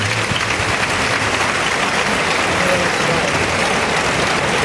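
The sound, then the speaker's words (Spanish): A sustained ovation from a bullring crowd for matador Juan Ortega as he salutes in the centre of the ring: steady, dense applause holds at an even, loud level throughout, with a murmur of voices mixed into the clapping. “Está saludando la ovación en el centro del ruedo Juan Ortega.”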